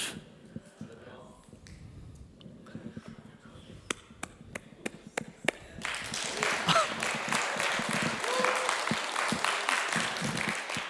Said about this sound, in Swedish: Jag tänkte väl att du tyckte om det. Man får gärna applådera lite i kyrkan. Vet du, man får säga amen och halleluja.